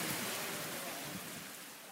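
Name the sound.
heavy rain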